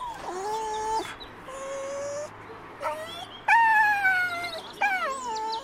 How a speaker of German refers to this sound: Also typisch Pudel, nicht einmal alleine rausgehen können die. Weint der jetzt? Ja, der möchte so gerne zu der Hündin da vorne, die findet er toll, aber da soll er jetzt nicht hin.